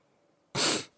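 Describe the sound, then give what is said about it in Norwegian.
A single abrupt, breathy burst of air, like a sneeze that starts but gets cut off, sharp after a quiet moment, with no talking. “Jeg bare trodde jeg måtte nyse.”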